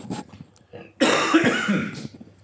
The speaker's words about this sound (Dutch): Dan moet ik even hoesten.